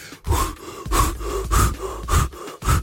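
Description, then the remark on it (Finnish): A voice imitates heavy, rapid panting, five loud breathy bursts in a steady rhythm, alone, like someone out of breath from running after a tram to reach its stop. “Lehmoni puuskuttaa perästä.”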